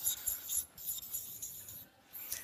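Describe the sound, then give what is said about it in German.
A marker pen squeaks and scratches across a surface in short, uneven strokes, fairly quiet, with brief pauses between the strokes and no one speaking. “Die Stifte sind nicht gerade toll.”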